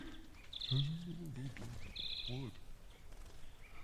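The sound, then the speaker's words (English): Two short, bright bird chirps ring out about a second apart over low murmuring voices and a steady background hum. “Why, that bird just poked me in the fucking back of my head.”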